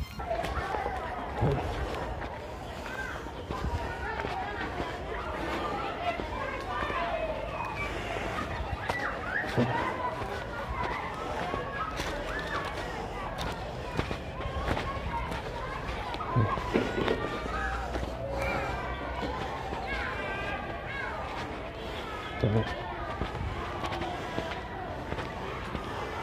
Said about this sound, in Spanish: Sí, se recuerdan ese círculo infantil privado que está en la casa de General Luis Rosales del Toro. Pues mírenlo aquí, mírenlo aquí ya funcionando. Escuchen hasta con los niños cómo juegan.